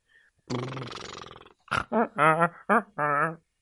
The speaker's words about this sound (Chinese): 大驴叫声都没有吓到他们。